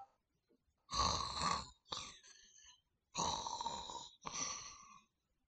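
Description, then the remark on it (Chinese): A voice imitates the loud snoring of the drunken Yang Xiong after he lies down: two full snore cycles, each a long rasping inhale followed by a shorter, softer exhale, repeated in a steady rhythm with brief silent pauses. “打起了呼噜，潘巧云一颗心砰砰乱跳，大气儿也不敢喘，就这么坐着，一直等杨雄睡着。”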